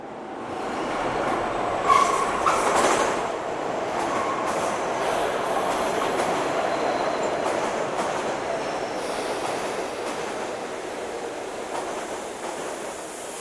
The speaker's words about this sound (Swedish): Genom tunnelbanan som går under Östermalm kommer emellanåt ett silverfärgat tåg skramlande. Det finns bara ett sådant tunnelbanetåg i Stockholm.